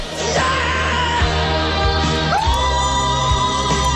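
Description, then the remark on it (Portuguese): Rod Stewart screams and whoops excitedly as Jeff Beck arrives at the station off the train, his voice swooping upward in two long, loud cries over a dense, noisy background that never lets up. “Os gritos do Rod Stewart quando Jeff Beck chega à estação, pá, é incrível.”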